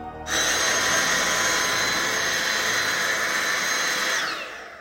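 A vacuum cleaner switches on and runs with a steady, loud, high whooshing whine for about four seconds before winding down, with no voices.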